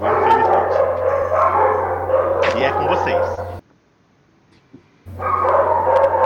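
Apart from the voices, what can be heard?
neighborhood dog barking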